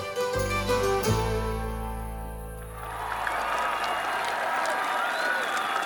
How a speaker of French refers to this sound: Après quelques heures de festivités, le roi se montre enfin sous les acclamations.